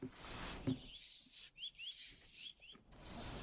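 Brisk brushing strokes sweep across a horse's coat as a person standing alone at the horse cleans it, a steady series of soft rasping swishes with brief pauses between strokes and no talking.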